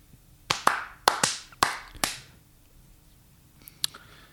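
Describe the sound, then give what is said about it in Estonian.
Sharp hand claps ring out, about six in quick, uneven succession with a slight echo, followed after a pause by two fainter claps. No one speaks. “ma pean plaksu tegema.”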